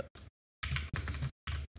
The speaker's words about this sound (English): clickety clack, clickety clack, clack, clack, clack, clickety clack. I got my clickety clack keyboard over yeah, here.